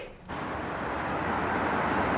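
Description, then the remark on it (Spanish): A taxi pulls up and stops in front of a building, its steady engine and road rumble rising suddenly out of near silence and holding loud and even to the end. No one speaks. “Un taxi se detiene frente al edificio.”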